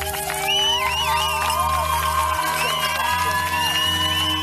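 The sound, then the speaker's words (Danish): A large crowd of demonstrators outdoors shouts and cheers continuously, a dense wall of voices with whoops rising above it, mixed with bright metallic jingling as people shake keys to make as much noise as possible. “Hvor man står og vifter med nogle nøgler, der larmer, så de kan larme så meget som overhovedet muligt.”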